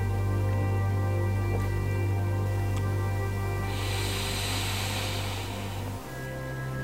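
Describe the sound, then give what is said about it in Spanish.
A person breathes out in a long, airy exhalation during a relaxing breathing exercise, rising midway and rushing softly like surf for a few seconds before fading, over a steady low background hum with no talking. “Este mar que suena desde tus adentros en cada exhalación, comprueba lo liberador que puede ser esta respiración.”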